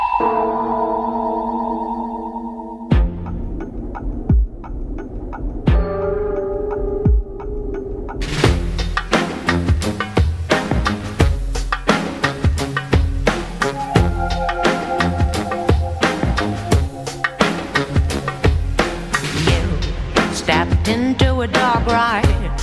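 A song by a Dutch female singer plays loud and up front, opening with a sparse, echoing electronic intro before a full, driving band arrangement with steady beats kicks in around the eighth second and continues to the end.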